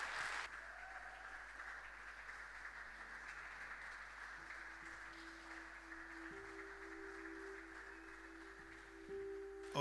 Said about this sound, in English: can do better with your clap. Though I, though I cannot see your face, I must see that you are excited.